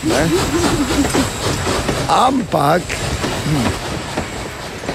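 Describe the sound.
An archival recording of a train passing: it rumbles with a steady mechanical drone and faint rhythmic clatter, moderately loud, while a person speaks briefly over it.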